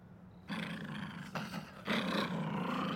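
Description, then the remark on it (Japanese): An animal named Taro growls menacingly toward the far end of a path in a forest, in two loud, rough bursts, the first lasting under a second and the second longer and stronger, with no voices. “突然太郎が道の奥に向かってうなり声を上げました太郎はまるで何か恐ろしい敵を威嚇しているようでした”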